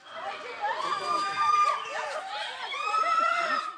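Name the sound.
people screaming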